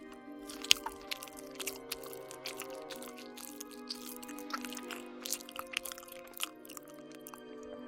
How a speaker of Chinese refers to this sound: 母女俩都饿了，开始狼吞虎咽的在幽暗的壁橱里吃了起来